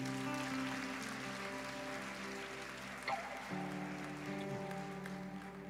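A crowd applauds for Jesus steadily for several seconds, a dense crackle of clapping over sustained musical chords, holding a fairly even level throughout.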